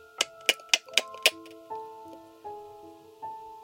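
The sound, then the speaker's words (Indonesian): A house gecko in front of a bedroom window chirps in a quick run of five sharp, evenly spaced clicks, followed by quiet with only faint steady background tones and no talking. “Ketika saya terbangun dan membuka mata, suara cicak itu muncul lagi.”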